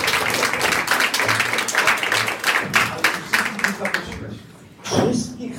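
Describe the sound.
A crowd applauds with dense, steady clapping for about four seconds before it thins out and fades, with a brief murmur of voices near the end.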